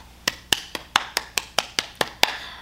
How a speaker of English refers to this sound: Now, I'm clapping and I'm smiling